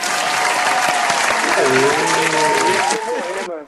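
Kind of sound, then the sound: crowd, applause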